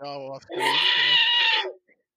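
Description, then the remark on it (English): A person briefly voices a short sound, then launches into a high, squeaky, bleating chatter imitating Jawa alien creature sound effects, loud for about a second before stopping abruptly. “you get the Jawa sound effects.”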